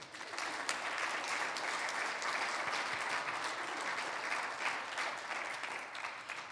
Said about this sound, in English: Let's go ahead and clap our hands.